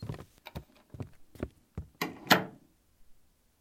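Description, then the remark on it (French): A few soft clicks and light knocks, then a bedroom door swinging shut with a brief scrape and a muted latch as someone leaves discreetly after turning off the bedside lamp, fairly quiet, with no voices. “Il lui fait un bisou sur le front, allume la veilleuse, éteint la lampe de chevet et s'en va discrètement en fermant la porte.”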